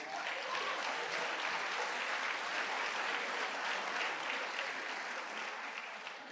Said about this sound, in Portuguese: Pode aplaudir Jesus.